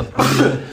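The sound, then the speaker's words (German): A single fairly loud sneeze bursts out after a brief quiet moment, a sharp noisy blast that fades quickly, with no talking around it. “Gesundheit.”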